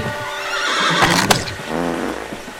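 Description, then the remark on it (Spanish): A video game horse named Lightbolt whinnies loudly as it follows its rider onto a train, a long quavering neigh with a shaky, wavering pitch and a brief sharp burst partway through, with no talking. “Y de repente veo que mi caballo me seguía, me seguía, me seguía.”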